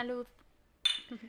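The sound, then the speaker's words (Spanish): A voice speaks briefly, then after a short pause a single bright glass clink rings out as glasses are clinked in a toast, followed by more voice and faint tabletop rattling. “Bueno, pues salud, ¿no? Salud. Salud.”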